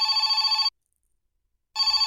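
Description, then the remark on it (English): A telephone ringback tone on an outgoing call to a kennel: one long buzzy ring, a second of silence, then the next ring beginning, loud with no voices. “Okay. It's ringing.”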